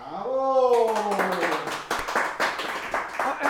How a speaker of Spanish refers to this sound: Esto de recibir los aplausos de antemano es un regalo fantástico y más fantástico que estés ahí presente.